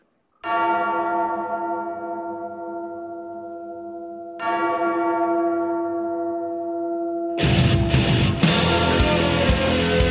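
A deep bell tolls twice, each strike ringing out and slowly fading, before loud, distorted heavy metal guitars crash in and fill the last few seconds.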